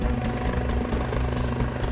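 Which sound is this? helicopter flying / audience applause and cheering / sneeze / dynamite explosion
helicopter flying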